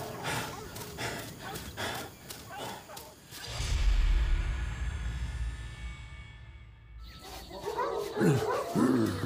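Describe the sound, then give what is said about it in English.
A quick run of sharp barks from dogs fills the opening seconds, giving way to a deep rumbling roar before harsher, busier sounds return near the end. “Hold the dogs in check.”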